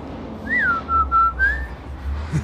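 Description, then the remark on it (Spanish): A father's whistled call to his daughters when arriving home: a rising-falling swoop followed by two steady notes and a final upward slide, clear over a low background rumble. “Mi papá siempre nos chiflaba desde chiquitas así.”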